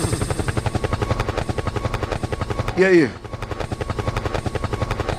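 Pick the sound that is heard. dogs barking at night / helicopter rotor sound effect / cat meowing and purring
helicopter rotor sound effect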